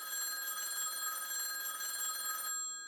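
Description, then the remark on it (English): A telephone bell rings steadily and loudly for a couple of seconds, a bright sustained metallic trill that cuts off abruptly near the end, with no voices over it. “Oh, don't you touch it! I won't let you speak to him! Get away from that phone”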